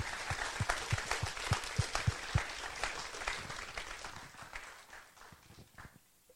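A crowd breaks into steady applause for summer interns, dense overlapping claps lasting several seconds before gradually thinning out and fading near the end.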